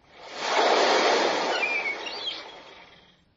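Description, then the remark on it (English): A single ocean wave crashes on the shoreline below a high bluff, surging in with a broad rushing roar, then slowly washing out and fading. A couple of faint bird chirps show up briefly during the retreating wash. “The bluff is high above the shoreline, where waves crash below.”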